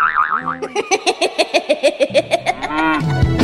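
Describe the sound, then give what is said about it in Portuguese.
A short, bouncy forró-style jingle with a rapid pulsing rhythm of about a dozen plucky beats, followed by a low, drawn-out cartoonish ox moo near the end, loud with no talking. “Ah, Cornélio, o boi do forró. Olha aí a vinheta.”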